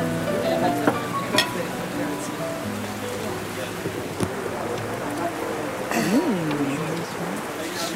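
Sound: rain falling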